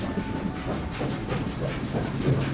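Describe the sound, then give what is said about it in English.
A train rumbles steadily along the tracks through a city at night, its low clattering and rhythmic wheel noise filling the scene with a faint hiss above, continuous, with no voices. “It's night where we've arrived, and we're in a city rolling down the tracks while everyone sleeps well, not everyone.”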